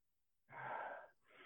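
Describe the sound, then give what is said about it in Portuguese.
A quick, shallow chest breath drawn in sharply through the mouth as a demonstration of poor breathing, fairly loud, followed by the start of another short breath, with no talking. “A gente respira muito mal. A gente respira usando essa parte, faz isso daqui, ó.”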